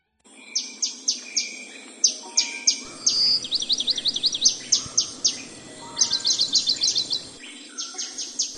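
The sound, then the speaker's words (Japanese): Birds sing by a lakeside in China in April, among willow trees with new green leaves, in bright, high chirps and rapid trilled runs, one song repeating in quick bursts over a soft, steady background hum; no one speaks. “お聴きいただいているのは人間の天国と呼ばれる杭の甲州聖子のほとりでさえずる鳥の声です4月聖子の川辺では柳の垂れた枝が新緑で覆われます”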